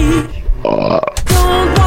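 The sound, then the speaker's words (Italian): A loud, drawn-out burp after eating, with a low, croaky rumble, followed by a second rough belching gurgle, prominent with no speech over it. “Ho mangiato bene!”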